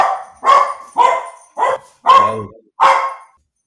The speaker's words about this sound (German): Ja, so, äh, kurze, kurze Hundeunterbrechung, aber weiter geht's.